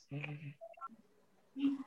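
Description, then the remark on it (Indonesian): A phone rings with a short melodic ringtone for an incoming call from the speaker's father, a few brief electronic tones rising in pitch, moderately loud, with a voice sounding just before and after. “eh bentar, bentar, bentar. Bapak Aing telepon.”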